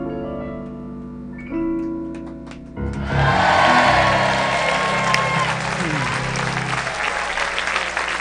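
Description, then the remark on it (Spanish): Loud audience applause from a live audience breaks out after a few seconds of sustained musical tones at the end of a song and keeps going as dense, steady clapping through to the end. “Porque aquí sí tenemos aplausos, muy bien.”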